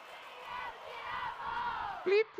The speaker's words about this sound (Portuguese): Acho que os aplausos são para outra pessoa.